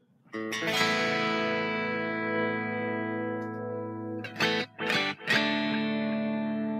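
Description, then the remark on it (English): A distorted electric guitar, played through a low-cost headphone amp, rings out a loud chord that sustains for several seconds before a couple of quick choppy strums restrike it and it rings on again. No one speaks. “So, for something as low cost as a headphone amp, the same amount of energy goes into making it sound really good.”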